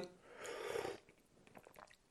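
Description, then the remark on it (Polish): An airy slurp as someone sips hot Darjeeling tea, an Indian First Flush tea, from a cup, lasting about half a second, followed by a few soft swallowing clicks. No one speaks. “dlatego wezmę łyka herbaty Darjeeling”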